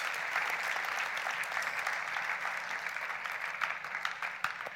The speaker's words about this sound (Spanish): Podemos darle un aplauso a Jesús por lo que Él ha hecho con nosotros.